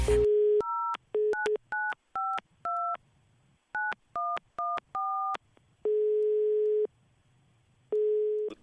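A brief dial tone gives way to a quick run of about a dozen touch-tone dialing beeps, followed by two long, steady ringback tones separated by a pause, clear with no voices, as someone phones an acquaintance.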